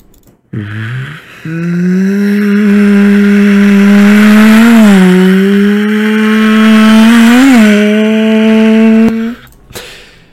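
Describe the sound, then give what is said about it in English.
A loud Sopwith Camel biplane engine buzzes steadily, its droning pitch climbing at the start and wavering slightly as it swoops down out of the sky, then cutting off abruptly near the end. “Just as the army of monsters came over the hill, a sopwith camel swooped down out of the sky.”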